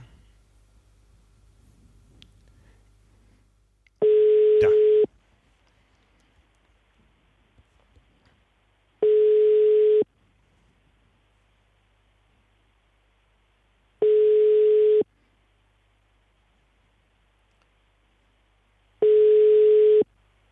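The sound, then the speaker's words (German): A telephone ringback tone on an unanswered call to the press spokesman of the new Köln City Triathlon: four steady, one-second electronic tones spaced about five seconds apart, clear over a quiet line with faint background hiss, no voices. “Und den versuchen wir jetzt mal zu erreichen.”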